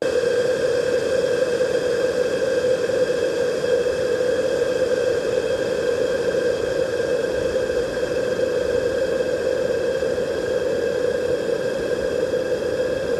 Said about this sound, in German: wir werden jetzt ein Kondensatormikrofon kochen, schonend garen im äh, Wasserdampf und dann schauen, was Hitze und Feuchtigkeit mit dem Wandler anstellen. Experiment Nummer 9. Kochen eines Mikrofons im heißen Wasserdampf. Eine Minute.